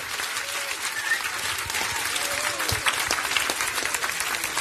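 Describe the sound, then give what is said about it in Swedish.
Sustained audience applause for the panel at the end of the show Flumskolan, a dense steady wash of many hands clapping at an even loudness for several seconds, with a few faint whistles and cheers rising above it. “Med de orden vill jag tacka panelen och be om en stor applåd för”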